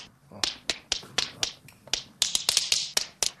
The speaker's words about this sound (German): ich übe hier gerade einen Stepptanz ein.